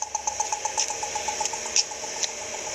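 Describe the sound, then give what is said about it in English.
An accessible pedestrian signal at a traffic light intersection gives off a rapid, steady ticking. A few sharper chirps stand out now and then over a low background hum, and no one speaks. “All of those sounds are types of APSs, or accessible pedestrian signals.”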